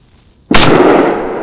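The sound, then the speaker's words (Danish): A single loud gunshot cracks out of near silence, its harsh blast rolling on and only slowly fading for about a second afterward. “Enten er herregårdsskytten sent oppe, eller også er det en af grevernes spøgelser, der er på natlig jagt.”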